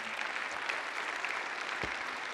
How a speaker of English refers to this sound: Let's put our hands together and just give the Lord a clap offering.